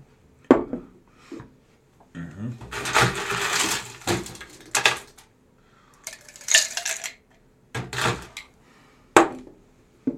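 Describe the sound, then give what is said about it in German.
Ice cubes clink and rattle into a glass while a tonic drink is being mixed, a series of sharp knocks and short bursts of tumbling clatter, with a brief murmur from a voice. “Ah, erstmal die Eiswürfel nochmal.”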